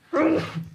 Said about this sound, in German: Gesundheit. Gesundheit.